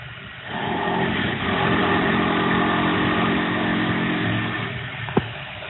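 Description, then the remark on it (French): Facade renovation works on a co-owned apartment building across the street: a steady, loud mechanical drone like an engine or compressor runs throughout with a constant humming tone, broken only by one sharp knock near the end. No one speaks. “Donc, c'était les travaux, mais cette fois-ci en face de chez toi. Oui, oui, c'était le ravalement, je crois, de, de la copropriété.”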